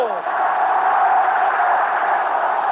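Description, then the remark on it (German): A huge stadium crowd of Eintracht Frankfurt fans roars continuously as they storm the pitch in Frankfurt, a dense, loud wall of massed voices that holds steady throughout without any clear individual speech. “Jetzt stürmen die Fans hier den Platz.”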